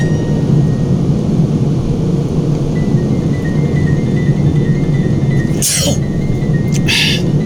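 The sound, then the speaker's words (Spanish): A sharp sneeze bursts out over a steady low rumbling hum, followed a moment later by a second, shorter burst of breath or sneeze. “¡Ay, voy a estornudar!”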